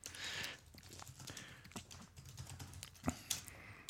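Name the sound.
typing on a keyboard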